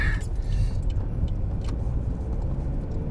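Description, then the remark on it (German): Someone gets into a cold car: a brief jingle and rustle at the start, then a steady low rumble of the engine or cabin noise fills the rest, with no talking. “Oh, kaltes Auto.”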